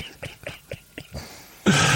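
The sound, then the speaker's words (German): A quick series of short, yappy dog sounds, five or six in a row, followed by a burst of loud rustling or scuffling as the dogs play. “Ich freue mich, dass du dich freust, dass die Hunde spielen.”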